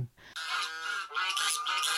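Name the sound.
goose honking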